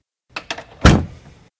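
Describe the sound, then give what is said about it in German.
A door is opened abruptly without knocking: a couple of quick latch clicks, then a loud thud and a rattling swing that fades over about a second, with no voices. “Beim nächsten Mal klopfe ich wohl besser an.”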